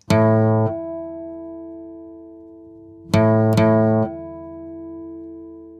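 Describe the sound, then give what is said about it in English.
A guitar string is plucked and quickly damped, leaving a faint, sustained ringing tone from another guitar string that shares an overtone and rings by sympathetic resonance without being touched. After a pause, two more plucks sound and stop, and a soft hum rings on afterward. “If two guitar strings share an overtone, then you only need to play one of the guitar strings for the other guitar string to start making that sound without anyone or anything touching it.”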